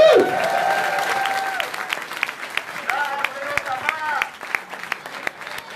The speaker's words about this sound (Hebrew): כפיים